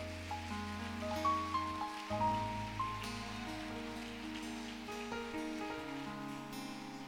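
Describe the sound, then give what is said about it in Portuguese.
Steady rain patters in a soft, continuous hiss throughout, partly masked by sustained keyboard chords playing over it; no one speaks. “até o barulhinho da chuva, né? O ventinho da chuva, você já dá um clima diferente, né?”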